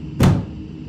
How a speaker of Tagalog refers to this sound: Napipikit na ako nang biglang magsara ang pinto na parabang ibinagsak ito ng malakas.